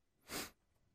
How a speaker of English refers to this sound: Excuse me, I'm a bit sniffing.